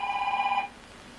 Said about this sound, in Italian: c'è stata una telefonata, ma non importa.